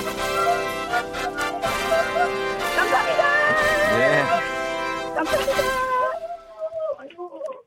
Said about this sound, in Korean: 아들들 난리 난 거예요, 뒤에서? 네, 네, 네. 어, 아들들 소리 질러! 야, 애들아, 소리 지르래. 하나는 변성기가 왔네.